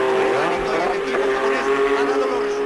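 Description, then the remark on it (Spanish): Loud racing car engines whine in a steady, high-pitched drone as cars tear past during the Spanish Grand Prix, with voices faintly audible beneath the engine noise. “se, escuchaban más los coches que a los comentaristas.”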